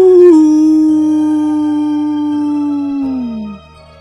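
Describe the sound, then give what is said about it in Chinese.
A single long wolf howl holds a steady, mid-high pitch for about three seconds, then slides downward and fades out at the end, with no talking over it. “听见毛毛虫这么说，大野狼开心的回答：“啊呜！”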